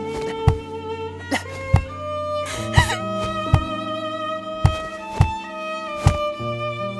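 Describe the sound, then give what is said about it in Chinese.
A forehead knocking hard against the floor in a kowtow by someone kneeling and begging in a living room, about eight heavy dull thuds at an uneven pace, each striking through a steady humming, music-like tonal background. “嗯，你没听错，那是我用力磕头的声音。”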